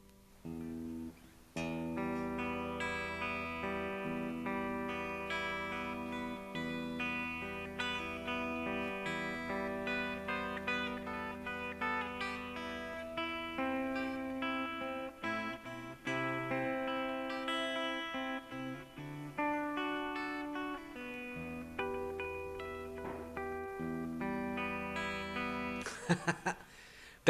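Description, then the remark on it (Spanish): An electric guitar drenched in reverb plays a slow, steady melody of ringing, overlapping notes for about twenty-five seconds, with no voices, ending in a short noisy scrape. “A ver, ¿cómo sería encontrar el sonidito correcto? Un poco de reverb vamos a meterle, a ver”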